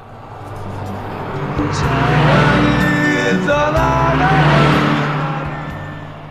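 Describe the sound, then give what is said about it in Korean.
A car passes alongside, its engine swelling and fading over several seconds while music playing in the car, with steady beats and melodic tones, sounds along with it, loud. “자, 옆에 차가 지나갑니다. 차 소리와 함께 음악 소리 들려요.”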